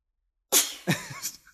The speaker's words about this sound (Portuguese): Ó, oh, mano, espirrando. Vai, vai transmitir doença aí.